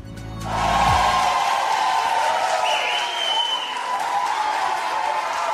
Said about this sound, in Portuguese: Aplausos para esta mulher.